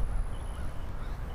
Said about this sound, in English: Joy at hearing the birds singing in the background there, flying over my head, landing on that tree. Looks like a crow, but I hear other birds.